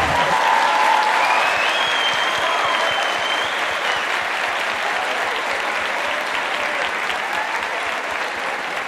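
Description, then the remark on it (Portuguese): A church audience applauds a man steadily, a dense, sustained wash of many hands clapping at an even level for several seconds, with faint cheering and whistle-like tones rising over it early on. “Dá então, uma salva de palmas para ele, gente.”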